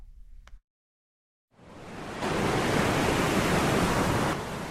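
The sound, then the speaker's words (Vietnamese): Heavy, roaring surf of rough sea waves surges onto the shore at the fishing village of Thạnh Đức 1, Phổ Thạnh ward, Đức Phổ town, Quảng Ngãi province, building and swelling into a loud, sustained rush of churning water after a brief low rumble and a short silence. No voices. “Những đợt sóng biển dữ dội cuồn cuộn tấp vào bờ cuốn trôi hàng trăm mét bờ biển ở làng chài Thạnh Đức 1, phường Phổ Thạnh, thị xã Đức Phổ, tỉnh Quảng Ngãi.”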